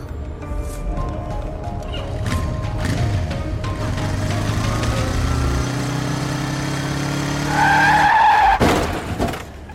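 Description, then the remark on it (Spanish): A motorcycle engine revs up, then tires screech in a sharp, loud skid, ending in a brief crashing impact as the motorcycle crashes with its rider not wearing a helmet, before the sound cuts off. “Uy, qué palo, encima sin casco.”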